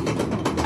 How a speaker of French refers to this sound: Donc là le bruit que vous entendez c'est le mécanisme qui permet au wagon de monter